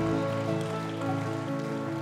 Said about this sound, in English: Amen. Come on, let's put our hands together. Amen. Let's give God a cheer this morning.